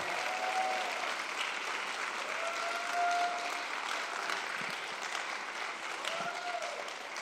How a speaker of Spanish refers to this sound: Vamos a darle un aplauso fuerte al Señor.